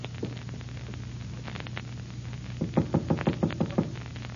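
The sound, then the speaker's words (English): A man knocks on his own door in a quick, even series of about seven distinct knocks, arriving after a stretch of low steady hum with a few faint ticks. No one speaks. “Wise guy knocking on his own door.”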